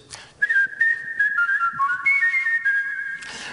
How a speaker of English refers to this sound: But during a Christmas party, a dinner actually, it's very annoying. So my sister-in-law uh, asked me a few times, um, please stop whistling, and I just couldn't.